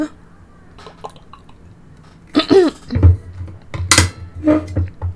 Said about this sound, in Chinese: 等一下，我我头头咙有点干，吹空调吹到喉咙干。等一下，我喝个水。